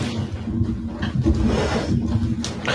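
A chair slides across the floor, a continuous grinding drag lasting nearly three seconds with a low rumble and faint squeaky overtones, with no one speaking.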